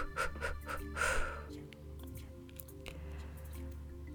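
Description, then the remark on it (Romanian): Breathy blowing of bubbles in a breathing exercise alternating long and short exhalations: a few quick short puffs, then one longer, stronger blow, fading to quieter soft breath noise afterward. No one speaks. “câte baloane mici poți să faci, pentru că când sufli mai repede, ies mai multe baloane mai mici.”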